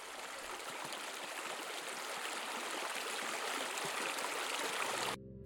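A river flows steadily with a dense, continuous rushing and babbling wash, even in loudness, cutting off abruptly near the end. No one speaks.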